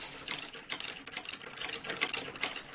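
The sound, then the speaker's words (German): A kinetic art machine runs steadily with dense, rapid clattering and ticking, like a sewing machine, in a busy rhythmic stream of small metallic impacts at moderate loudness with no voices. “Das ist eine Maschine mit dem schönen Titel Nach dem dritten Date. So klingt sie mhm. übrigens.”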